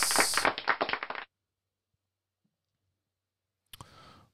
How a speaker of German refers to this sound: Wir sind wieder für Sie da. Juhu, dann machen wir aber einen Applaus.